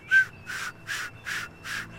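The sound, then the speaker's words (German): Rhythmic whooshing, whistling wingbeats of a swan in flight, made by a specially shaped feather on the wing's hand on each downstroke, five evenly spaced pulses about every third of a second, moderately loud, with no voices. “Und wenn sie dann in der Luft sind, dieses sausende Fluggeräusch, das kommt von einer sogenannten Schallschwinge.”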